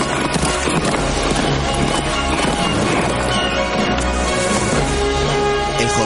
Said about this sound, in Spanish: Mientras, el caballo avanza veloz, dominado diestramente por un hombre chaquetado.